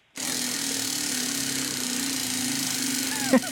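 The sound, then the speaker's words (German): A prize wheel spins with a fast, steady rattle of clicks that blur into a continuous whir, then stops with two sharp, brief knocks at the end. No one speaks. The wheel is spun to the right and hard for a quiz winner. “Wir drüllen am Preisrad.”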